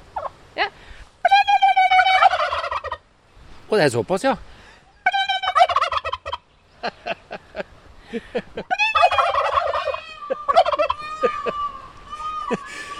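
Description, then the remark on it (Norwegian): Turkeys at a park gobble loudly in repeated rapid, warbling bursts that overlap one another, with a brief spoken remark from a person mixed in. “Skal vi se om det er noe lyd i de her kalkunene der.”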